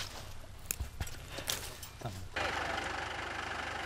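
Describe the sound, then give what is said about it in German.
A tractor engine, driven by a twelve-year-old boy, chugs with a low, steady rumble, punctuated by a few sharp clanks, then swells into a louder, continuous roar partway through. “Traktor fährt er, seit er zehn ist.”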